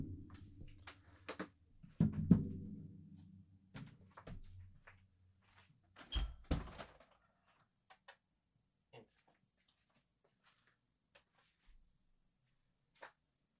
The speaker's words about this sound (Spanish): y a punto de pararla porque voy a abrirle la puerta a mi gata. Dame un segundo.